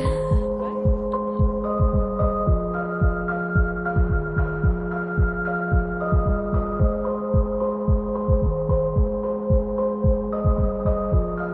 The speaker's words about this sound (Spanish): perdón, es que estoy pegada con esta canción,